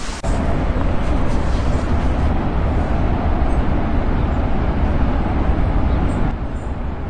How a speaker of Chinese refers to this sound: 这是在山上听海的声音，是一种很巨大的背景音。